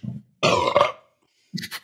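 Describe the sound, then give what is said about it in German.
A loud, rough burp of about half a second with a gurgly, rasping texture, followed after a brief pause by a short breathy exhale. “War der, war, der, war der sehr drauf, mein Rülpser, auf der Aufnahme?”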